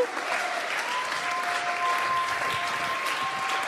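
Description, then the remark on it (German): Sustained audience applause as the audience stands for a woman coming onto the stage, a dense steady wash of clapping that stays loud and even throughout, with a faint high tone drifting across in the background. “Lass uns mal aufstehen und ihr einen fetten Applaus geben, während sie auf die Bühne kommt.”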